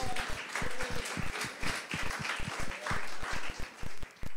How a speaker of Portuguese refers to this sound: Amém. Aplauda Jesus.